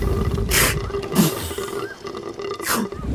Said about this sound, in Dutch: Misschien is het walvissentaal?